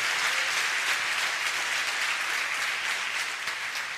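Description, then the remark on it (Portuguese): A church audience claps together in sustained, steady applause offered to the Lord in the name of Jesus, a dense crackle of many hands that holds at an even, fairly loud level for the whole four seconds with no speech over it. “Pós na salva de palmas ao Senhor, em nome de Jesus.”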